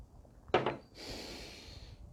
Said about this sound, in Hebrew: ואני בינתיים שתי מים ואתם תנשמו.